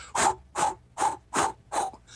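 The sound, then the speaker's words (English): A voice imitates a balloon being blown up in steps, illustrating stepwise screen magnification in older software versions: five breathy, hissing puffs in an even rhythm, each one short and separated by a brief pause, fairly loud. “A good example of that would be if I was blowing up a balloon. In the previous versions, it's as though I'm going.”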